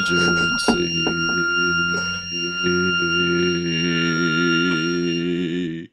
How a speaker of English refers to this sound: Yeah, that was one of those notes that was so high it did sound low to the human ear. okay, okay, people are saying their dogs are upset.